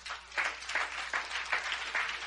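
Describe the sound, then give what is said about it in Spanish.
A crowd applauds the Holy Spirit, dense clapping filling the whole moment with rhythmic surges roughly every half second, as if clapping in unison. No one speaks. “un aplauso al Espíritu Santo.”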